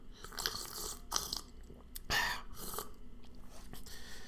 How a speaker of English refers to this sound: Burping all day. I'm burping and I'm drinking water.